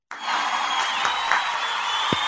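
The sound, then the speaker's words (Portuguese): A sustained burst of applause, steady and fairly loud, a dense wash of clapping that starts abruptly and continues evenly for a couple of seconds with no voices. “Uma salva de palmas para a Suelen”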